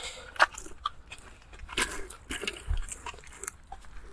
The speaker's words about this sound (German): Jetzt ist der Roller umgefallen. Eieieiei.